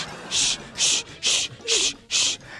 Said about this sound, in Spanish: Y el vato con el serrucho cortando las patas a la suegra. Ese sonido es como que está haciendo raspado, ¿ya?